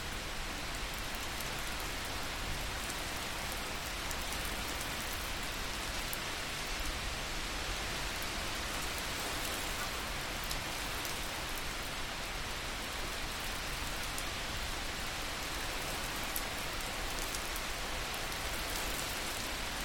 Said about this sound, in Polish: Wsłuchaj się w otulające dźwięki deszczu, który jest gdzieś daleko od ciebie. jak te dźwięki na ciebie wpływają. Może sprawiają, że nieco bardziej się wyciszasz.